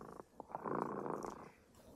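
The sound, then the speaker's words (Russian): A cat named Remota purrs in a steady, low, rumbling drone that swells to its fullest in the middle and then fades, with a few soft rhythmic pulses at the start and end. “А наш кот Ремота запел свою песенку.”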